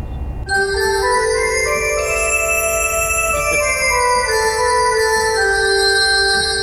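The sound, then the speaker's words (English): Tuned sleigh bells, a sound effect played on an organ, ring out suddenly and keep going, a bright, loud, shimmering wash of pitched jingling that sustains steadily for several seconds with no voices. “we have the uh, tune sleigh bells.”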